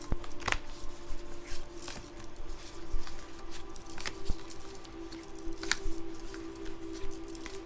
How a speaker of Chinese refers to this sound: 那也来让我先抽牌吼。等等哦，这样比较不好抽。